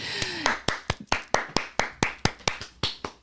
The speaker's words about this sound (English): One clap in the crowd for a new series that we're starting called The Female Psychopath.